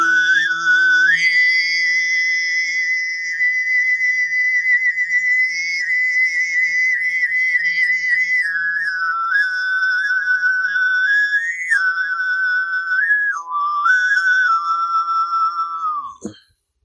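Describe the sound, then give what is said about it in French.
A voice imitates the wind with whistled overtone singing: one steady, piercing high tone over a faint low drone, wavering and sliding gradually downward for about sixteen seconds before cutting off. “le chant diphonique sifflé en fait, je vais imiter le le souffle du vent.”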